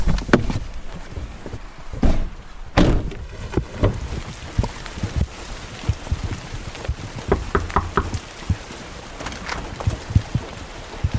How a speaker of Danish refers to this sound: Skal vi gå over og banke på? Skal vi ikke gøre det? Okay.